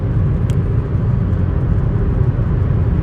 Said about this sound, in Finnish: Tää laatu voi olla ihan kamala, kun ei mulla ole edes mikkiä ja mä ajan autolla tällä hetkellä Ouluun. Se on puoli seitsemän aamulla ja mä oon ajanut jo useamman tunnin lähin Tampereelta.